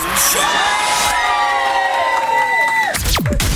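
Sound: studio audience cheering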